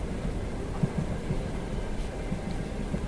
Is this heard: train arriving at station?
yes